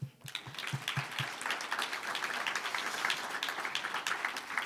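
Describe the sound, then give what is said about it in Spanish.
A church crowd applauds steadily for several seconds after it is announced that 30,000 dollars in offerings were just collected, a dense, crackling patter of many hands clapping at once, with a few heavier low thumps at the start and no voices over it. “Desde un aplauso.”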